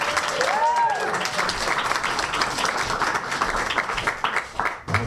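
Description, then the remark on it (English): An audience applauds with dense, steady clapping that holds at an even loudness for about five seconds, with a brief whistle-like tone rising and falling near the start. “Gentlemen, clap, clap, clap, clap, clap, clap, clap, clap, clap, clap.”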